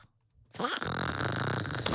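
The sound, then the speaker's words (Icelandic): After a brief silence, a voice makes a harsh, squeaky, grating noise for about a second and a half, imitating two pieces of styrofoam being rubbed together. It's fairly loud. “Fólk sem að tekur tvo hérna, fröðplast og nuttar þeim saman”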